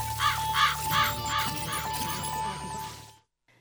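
A raven caws three harsh times in quick succession, loud, followed by rougher croaking calls over a steady hum and tone before everything cuts off abruptly.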